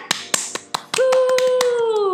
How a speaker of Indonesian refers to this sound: Tepuk tangannya.